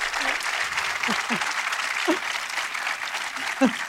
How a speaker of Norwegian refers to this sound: Ah. 700 klapp på igjen Det er alltid fint. Var ikke det, var ikke det, er ikke det stas med applaus? Ja, det er fantastisk.